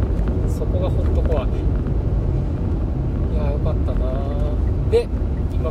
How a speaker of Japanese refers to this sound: また車に乗ってドライブをしてる最中なんですけれども